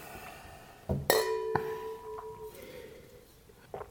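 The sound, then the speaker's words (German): Wine glasses clink together in a toast, a bright ringing chime near 1.1 seconds that lingers with sustained tones, followed by a few softer glassy touches. “Wir sagen mal Cheers.”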